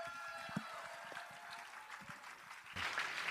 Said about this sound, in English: So let's give him a round of applause as he comes.